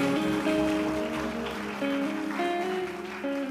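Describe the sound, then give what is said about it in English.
A church audience claps hands as a clap offering to the Lord, a steady, dense burst of applause that holds at an even loudness throughout, with sustained keyboard notes ringing underneath and no voices. “the Lord a mighty clap offering.”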